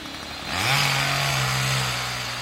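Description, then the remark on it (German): A chainsaw felling trees in a larch forest above Cortina d'Ampezzo, below the Tofana massif, revs up sharply and holds a loud, steady buzzing whine with strong harmonic bands, its pitch rising then settling at high throttle, no voices present. Several hundred trees are being cut for the new bobsleigh track for the 2026 Winter Olympics. “Mehrere hundert Bäume werden hier gerade für den Neubau der Bobbahn für die Olympischen Winterspiele 2026 gefällt.”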